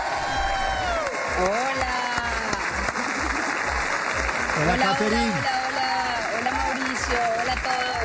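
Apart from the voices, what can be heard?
audience applause and cheering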